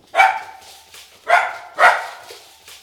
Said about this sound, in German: Ja, Hund Greta bellt da nochmal. Heute ist ihr Tag.